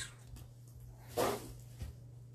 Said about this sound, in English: that is Spot Bop the Cat